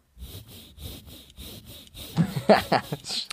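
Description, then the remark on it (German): A hand saw cuts through wood in a steady back-and-forth rhythm, about seven rasping strokes, close by, before a louder, rougher burst of scraping near the end. “Das ist äh, der Stuhl von Adam Gaze, an dem so heftig gesägt wird.”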